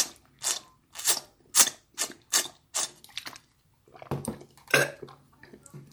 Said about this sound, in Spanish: Voy a tomar agua. No. Silencio. Momento, momento agua.